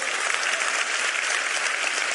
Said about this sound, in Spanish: Ah. Dios. Oh. Bueno, es el aplauso del miedo, ¿no?